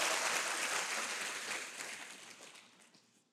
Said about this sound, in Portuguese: Aleluia! Aplauda bem forte a Jesus. Glória a Deus.